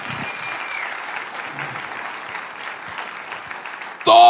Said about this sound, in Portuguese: Yes, dê para Jesus uma forte, forte salva de palmas.